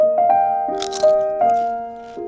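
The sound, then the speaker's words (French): A few crisp, crunchy bites of food, short noisy bursts clustered near the middle, heard over steady sustained musical tones that continue throughout. “Croustille, hein”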